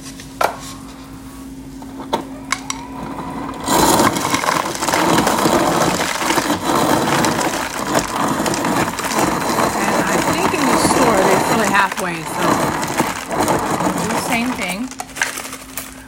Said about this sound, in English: So first things first, I'm gonna get a cup. Then I'm going to set my refrigerator to crushed ice.